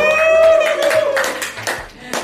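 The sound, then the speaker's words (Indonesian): Hands clap in loud, sharp bursts, roughly seven or eight uneven claps over a couple of seconds, with a steady tonal sound and some voices mixed in during the first second. “wes keren tepuk tangan”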